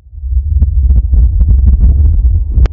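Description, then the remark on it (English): A deep, heavy earthquake rumble of an island shaking itself apart rolls continuously and loudly, with scattered crackling and rattling debris on top and a sharper crack near the end. “Did you feel that, Kay? That's the island shaking itself apart.”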